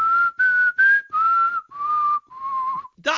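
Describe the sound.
Someone whistles a short tune like the whistle in the BBC One trailer announcing EastEnders: six clear, sustained notes separated by brief pauses, the pitch slowly drifting downward toward the end, followed by a quick breathy sound.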